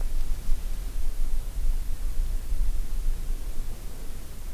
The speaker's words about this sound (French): Pour mon album …, je suis allé capter le silence de la banquise au Groenland.